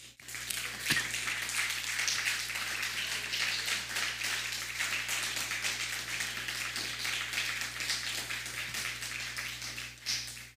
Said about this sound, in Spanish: Un fuerte aplauso.